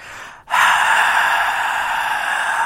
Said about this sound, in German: das ist so ein tobendes Stadion, falls das über den, übers Mikrofon gut erkennbar war.